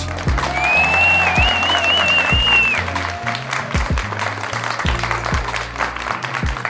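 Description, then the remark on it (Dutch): A crowd applauds steadily and fairly loudly for several seconds, with a wavering high whistle rising over the clapping early on; no one speaks. “Voor degene die het tot hier heeft volgehouden, een welverdiend applaus.”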